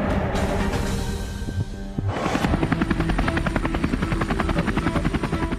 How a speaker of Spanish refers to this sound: mañana del 26 de enero del 2020, la neblina era muy densa y Kobe Bryant, junto a su hija Gigi y otras siete personas, viajaban en un helicóptero que se estrelló contra las colinas de Calabazas en Los Ángeles.